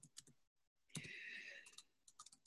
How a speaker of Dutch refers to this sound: nou, ik ga ik natuurlijk de hele tijd verkeerd typen. Maakt niet uit.